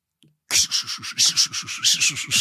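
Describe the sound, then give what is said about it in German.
Someone imitates a steam train with their voice, a loud, steady chugging of about a dozen rapid breathy 'ch-ch' bursts in an even rhythm, with no words spoken. “Wenn jetzt mal, irgendwer da draußen wirklich Zug, gedacht hat, ja, mach was soll ich Zug, machen? Was? Ein Zug.”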